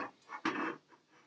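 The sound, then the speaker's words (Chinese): A cooking pot is set down on a stove burner over a low flame to make toffee milk tea, with one short, fairly loud metallic clunk and scrape, framed by fainter brief scraping sounds before and after; no voices. “炉心的小火，把锅子放在上面。”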